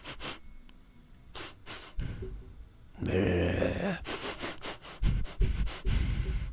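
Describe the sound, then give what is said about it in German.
Repeated animal-like sniffing and snuffling, like predators in the darkness slowly coming closer; short breathy bursts in an uneven rhythm that grow louder and busier toward the end, with no talking. “wie Raubtiere in der Dunkelheit und dann wie das Schnüffeln langsam näher kommt.”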